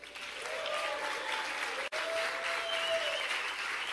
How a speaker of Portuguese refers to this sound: Aplauda Jesus pela vida